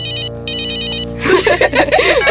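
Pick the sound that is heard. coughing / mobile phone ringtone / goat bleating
mobile phone ringtone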